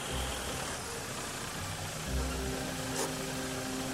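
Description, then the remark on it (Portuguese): Engines of three arriving cars idle and rumble in a steady, noisy wash, with a deeper motor tone swelling in partway through as though another vehicle pulls up. “E vocês veem outros três carros chegando.”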